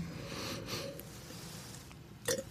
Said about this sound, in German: habe ich es im Mund und versuche Sauerstoff im Mund zuzuführen, um quasi künstlich den Wein atmen zu lassen im Mund